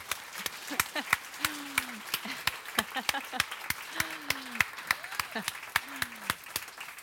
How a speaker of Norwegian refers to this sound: Det, så den beskrivelsen syns vi kan klappe for.